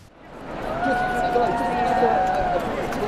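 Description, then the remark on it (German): A large crowd at Royal Ascot cheers and shouts continuously as the Queen arrives in her carriage, swelling quickly at the start and staying loud and dense throughout, with many overlapping voices blending into a steady roar. “Die Queen hält in ihrer Kutsche Einzug in Royal Ascot und das Publikum jubelt ihr zu.”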